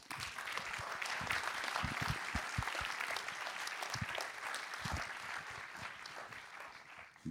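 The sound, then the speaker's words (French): Sustained applause from an audience welcoming Thierry Frémaux, director of the Institut Lumière, at a discussion event: a dense steady patter of many hands clapping at even loudness for several seconds, with no voices over it. “Si vous voulez bien accueillir Thierry Frémaux.”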